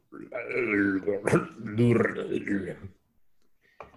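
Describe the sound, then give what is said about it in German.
A voice imitates a stomach gurgling before diarrhea: a strained, warbling vocal moan lasting about three seconds, with a brief break midway, then a short faint sound near the end. “kennst du dieses dieses Geräusch, das dein Bauch macht, wo du es noch nicht merkst, aber in dem Moment feststellst, du bekommst gleich Durchfall, dieses ich kann es halt nicht nachmachen, weil es ein komisches Geräusch ist.”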